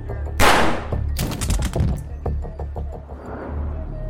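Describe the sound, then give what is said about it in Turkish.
A loud gunshot bursts out as a man shoots himself, followed by a rapid cluster of sharp cracks and thuds, then a low, rumbling tail with no talking. “orada kendini öldürdü.”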